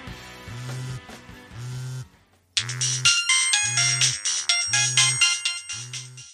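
A phone ringtone rings loudly in a steady repeating pattern of bright, chiming tones with a low pulsing beat, pausing briefly before resuming with a fuller, brighter melody, as the office calls.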